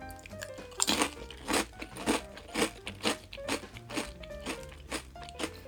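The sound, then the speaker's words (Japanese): A small, thick, golden-brown black-pepper potato chip is bitten, then loud, sharp crunches follow in a steady rhythm, about ten crisp bursts as it is chewed, with no talking. “割と1個は小ぶりですね普通のポテチのあのま丸い大きさの半分ぐらいですかね面積ではで厚みは本当に厚いですね分厚くてで黄色い色がしっかり黄色いきつね色に上がってます本当に熱いいただきます”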